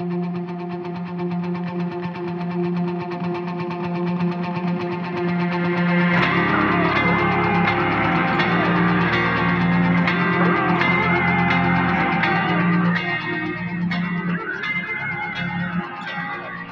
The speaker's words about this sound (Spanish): Entonces vamos a escuchar esta canción del último disco que grabaron